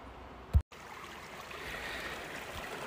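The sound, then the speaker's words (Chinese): A steady, rushing wash of water from a small, cold mountain creek in Sierra Madre, beside the speaker during a hike with a friend, flows continuously, a broad hiss with no voices. Early on a brief low thump is followed by a split-second dropout before the flow resumes. “我不确定你现在听不听到我旁边的水声。”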